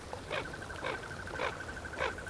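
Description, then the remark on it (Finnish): A common goldeneye duck calls four times in a steady, evenly spaced rhythm, each call short and raspy, fairly soft, with a thin continuous whistle in the background. “Telkkä on laulujoutsenten ohella yksi kevään ensimmäisistä vesilinnuista.”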